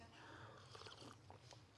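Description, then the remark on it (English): Someone takes a quiet sip of coffee, with a few soft slurping and swallowing mouth sounds, no talking, and a sharp little click right at the end. “Hang on, I really need a sip of caffeine, of oh, coffee, caffeine.”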